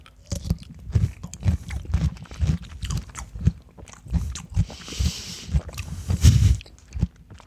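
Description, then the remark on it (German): Wet crunching as someone bites into a crisp salted dill pickle and keeps chewing, a steady run of loud crackly crunches with brief pauses, no talking. “So, ja, dann mal reinbeißen, ne?”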